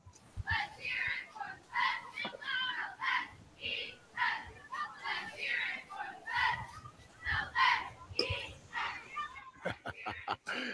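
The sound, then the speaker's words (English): A group of young voices from a unified elementary school, Lone Star Elementary, shouts a unified team cheer in unison, a steady run of loud, punchy syllables, ending with a few sharp claps or stomps. “Y'all just missed that they were doing a unified cheer just now.”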